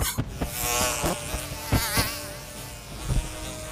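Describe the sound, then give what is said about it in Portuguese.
A dense, continuous buzzing of a swarm of flies summoned as a field of flies, steady and loud with occasional brief thumps and crackles, and no voices. “Ele faz um campo de moscas de novo e o fogo é desfeito.”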